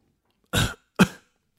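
Harsh, sputtering coughs from someone choking on a drink: two loud, raspy bursts about half a second apart, with a third just starting at the end, and no talking.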